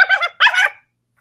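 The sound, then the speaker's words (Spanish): Dogs barking: two quick, high-pitched yapping barks in close succession, fairly loud, followed by silence with no voices. “Mm, se escuchan los perros.”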